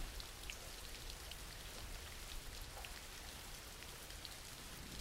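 Steady rain falls continuously, a dense hiss of drops pattering on a surface with scattered sharper taps, evenly sustained throughout with no voices.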